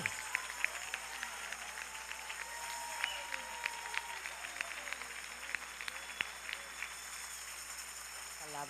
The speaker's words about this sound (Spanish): Vamos a darle ese aplauso más fuerte al Señor poderoso.